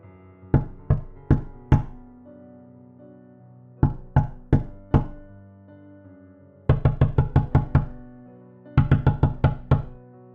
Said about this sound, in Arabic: سمعنا صوت نقر على شباك اوضتي وبعدين على شباك اوضه المكتب